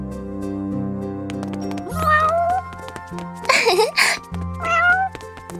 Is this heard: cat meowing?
yes